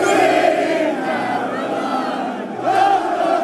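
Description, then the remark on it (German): A large football crowd at Wembley Stadium roars in celebration of a historic victory, a dense, sustained wall of cheering voices with chanting pitches rising above it, swelling again loudly toward the end. “So klang das am Wembley Stadion.”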